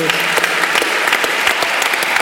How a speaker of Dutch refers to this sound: En eh, zullen we, eh, laten we voor de tribute ook gewoon hem een applaus geven